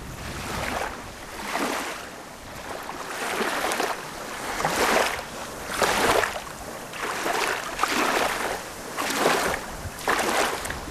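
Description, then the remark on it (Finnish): Small wind-driven waves lap and wash against the shore in a steady, repeating rhythm, each soft splash swelling and fading every second or two, unaccompanied by voices. “Tässä on jotain tässä kun tuulee aallot, niin jotain todella rauhoittavaa vesi on meidän rauhoittava elementti.”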